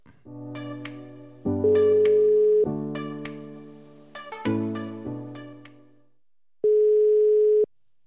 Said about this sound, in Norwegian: Han er i hvert fall ikke klar for å ta telefonen.